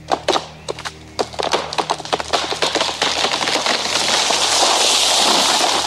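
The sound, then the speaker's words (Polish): A burst of sharp, loud wooden cracks and splintering snaps, like a tree giving way, quickly swelling into a sustained rushing crash that continues to the end. “Mijają dom z zarwanym dachem posesję z przewróconym na zabudowania gospodarcze drzewem, kiedy nagle rozlega się trzask, jakby zwalającego się drzewa.”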